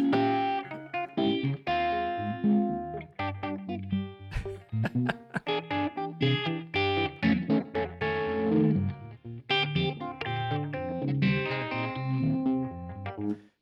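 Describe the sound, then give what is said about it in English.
An electric guitar played through a Univibe, its tone swirling and throbbing with a chorus-like wobble and some grit, as busy phrases of notes and chords ring out loudly with no talking. “With the Univibe.”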